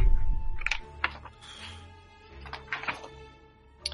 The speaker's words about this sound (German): du darfst jetzt würfeln. Und zwar einen Würfel 20, soweit ich weiß.